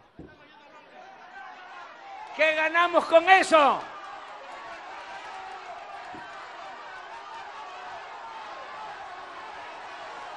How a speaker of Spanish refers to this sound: Miren, ahí está, ahí están los gritos.